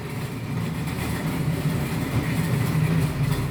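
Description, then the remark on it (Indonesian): A train rumbles past, a steady low roar with faint rhythmic clatter of wheels on track, holding loud and constant throughout with no voices. “mohon maaf ada kereta lewat iya, diharap memaklumi keadaan saat ini”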